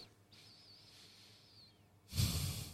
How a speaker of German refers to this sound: So, und jetzt atmen mal durch die Nase ein und aus.